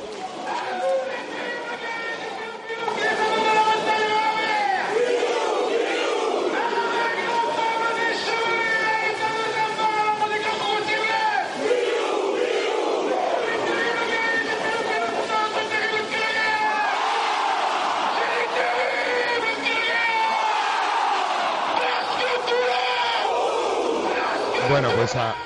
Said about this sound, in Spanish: ahí ese Pilu Pilu, ese himno del, eh, Tulón, que bueno, que es un himno un poco interactivo, ¿no? Porque hay un, un disertador o un narrador que va que va explicando las razones, bueno, y el público contesta